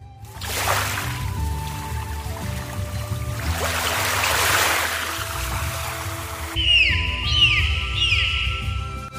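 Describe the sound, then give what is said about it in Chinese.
Ocean waves surge and wash in two broad, hissing swells over a low steady rumble at a coastal lighthouse point known for watching dolphins and migrating whales, followed by a series of repeated high, rising dolphin whistles near the end. No one speaks. “你听到海浪的声音了吗？”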